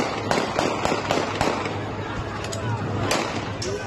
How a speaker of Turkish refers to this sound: Çevik kuvvet ekipleri öfkeyi havaya ateş açarak dindirmek istedi.